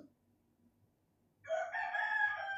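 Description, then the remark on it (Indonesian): The speaker's own rooster crows loudly, a single long cock-a-doodle-doo that starts abruptly after a moment of near silence and carries on to the end; it keeps crowing again and again. “nah, udah ayam gue kayaknya nggak bakal berhenti ntar bentar lagi bunyi lagi ya tiga dua satu”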